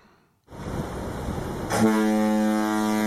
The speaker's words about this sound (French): Oh mon dieu, mais ce ne serait pas la corne de brume de la nouvelle chronique